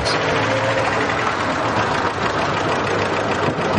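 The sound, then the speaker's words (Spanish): A car engine idles steadily as the car arrives at a stately but poorly kept building, with snow covering the gardens; a continuous low rumble with a faint mechanical rattle that holds an even level throughout, with no voices. “Más tarde, llegan en coche a un edificio señorial pero mal conservado.”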